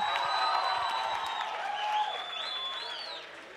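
An audience breaks into sustained applause for an audience member, a dense wash of clapping with a few cheers and whoops rising over it, steady throughout and fading slightly toward the end.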